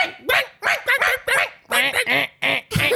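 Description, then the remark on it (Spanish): A voice mimics a small toy dog, letting out a quick series of high, squeaky yaps and barks in an irregular rhythm, fairly loud with no other sounds. “Eso es lo único que se escuchaba del perrito.”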